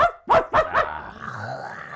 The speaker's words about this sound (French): À l'extérieur, il y a comme un chien attaché à un piquet, genre qui vient s'approcher, puis qui est comme.